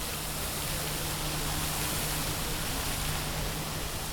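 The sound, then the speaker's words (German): A steady, dense roar of city street traffic with combustion engines in Rome on a hot mid-October day above 30 degrees, with almost no electric vehicles; a continuous wash of noise with a low engine hum underneath and no distinct passing vehicles or voices. “E-Mobilität gibt's hier fast keine. Man hört's.”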